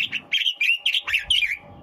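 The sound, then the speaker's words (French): A bird sings in a quick run of bright, high chirps and warbled notes, several short phrases in rapid succession with brief gaps, heard on its own with no talking. “On va se mettre dans l'ambiance avec Ilan Malka.”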